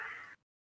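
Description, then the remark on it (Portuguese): A single short, harsh bark from a dog in the street, followed by a brief silence before another sound starts to rise at the very end. “Não, é um cachorro na rua, cara.”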